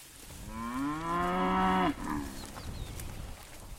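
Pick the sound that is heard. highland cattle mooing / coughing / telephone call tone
highland cattle mooing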